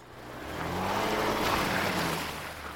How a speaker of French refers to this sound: Le camion s'arrête.